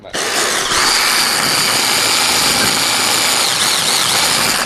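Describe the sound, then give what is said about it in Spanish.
A loud electric hand blender with a blade attachment whirs steadily after a quick start as it chops onion, its high-pitched motor whine holding constant with a faint rising and falling tone, with no voices over it. “es una batidora, un brazo de, batir convencional al que tiene un cacharrito con unas cuchillas”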